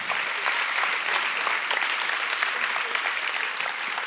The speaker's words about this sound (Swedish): Vi ger en varm applåd.